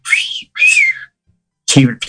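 A person whistles loudly in two sharp, sliding bursts, one right after the other. A short pause follows, then a voice briefly breaks in at the very end.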